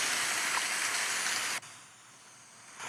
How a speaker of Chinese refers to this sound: 我现在就是放给大家听一下，有听到吗？这个是冥想。然后现在就下雨了